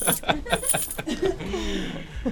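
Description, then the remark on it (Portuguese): Keys jangle in a quick burst of metallic clinks as a set of keys is handed over, followed by a softer rustle, with faint voices and light laughter in the background. “para isso eu emprestava-te assim as chaves que eu tenho aqui.”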